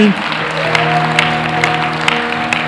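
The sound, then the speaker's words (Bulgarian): A church audience, urged to clap louder, claps steadily in a dense, continuous wash of applause, with a low sustained hum and scattered sharper claps standing out over about three seconds. “Трябва да ръкопляскате по-силно.”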